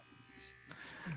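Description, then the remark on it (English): An electric Manscaped Lawnmower 4.0 body hair trimmer with a 7,000 RPM motor hums with a steady, motor-driven buzz for about a second, fairly quiet, with a faint voice murmuring underneath. “Lawnmower that sounds a little 0. better.”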